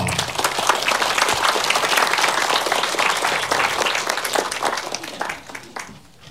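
A crowd applauds steadily for about five seconds to welcome a guest, a dense wash of many hands clapping that tapers off near the end, with faint voices mixed in.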